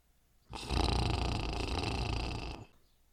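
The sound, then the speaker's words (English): A single drawn-out gentle snore from a woman fast asleep in bed, a raspy rumbling breath lasting about two seconds, with quiet before and after and no talking. “But when instead there came the sound of gentle snoring, they sat up in bed and looked across at her, only to find that she was fast asleep.”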